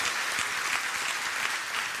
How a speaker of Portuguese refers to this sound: Você pode até celebrar por isso, você pode até dar uma salva de palmas, porque Ele vai fazer isso em nome de Jesus.